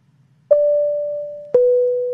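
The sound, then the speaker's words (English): Two car seatbelt warning chimes as a seatbelt is put on and off, each a steady mid-pitched tone with a sharp onset that rings on and slowly fades, the second starting a second after the first and slightly lower, over a faint low hum. “Um, that was me telling you to put your seatbelt on and off 16 times.”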